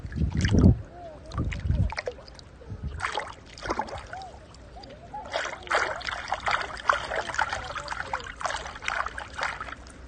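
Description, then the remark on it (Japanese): Water splashes and sloshes in repeated bursts as someone steps through a shallow river, with a steady trickle running underneath and a few low thumps early on. “ほんのちょっとだけよいしょあ川の温度ちょうどいい最高”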